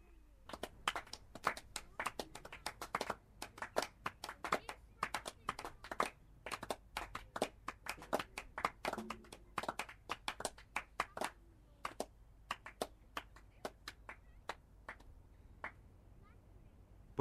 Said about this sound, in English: There is applause for every scoring shot, and sometimes there is applause when a run hasn't been scored.